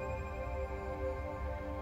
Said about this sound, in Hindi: उसी वक्त उसके मोबाइल पर किसी का कॉल आ जाता है वो कॉल तो रिसीव नहीं करती और तुरंत मैसेज भी आ जाता है